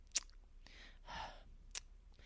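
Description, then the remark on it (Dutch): A voice imitates noisy chewing: two sharp, wet lip-smacks about a second and a half apart, with a softer, breathy mouth sound between them, with no talking. “En wat ze ook altijd deed was dat smakken. En dan hoorde ik dit.”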